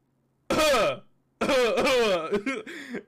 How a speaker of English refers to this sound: I was like, she's like, all right, now cough.